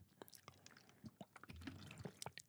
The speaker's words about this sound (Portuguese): Desculpa, bebi minha água.